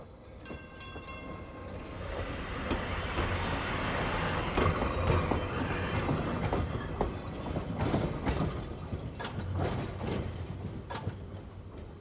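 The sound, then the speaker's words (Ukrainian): An electric tram in Lviv rumbles steadily along its rails, with sharp metallic clicks and clatter over the track joints and a continuous low drone, loud throughout. “У Львові Стефан Хальтон вперше на власні очі побачив електричний трамвай.”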